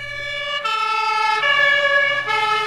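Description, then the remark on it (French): An emergency vehicle siren wails in a steady two-tone pattern, alternating between a lower and a higher pitch every second or so, loud and continuous with no voices. “Malgré la rapidité de leur intervention, les secours n'ont pas pu sauver Eurydice, mortellement mordu au pied par ce terrible serpent.”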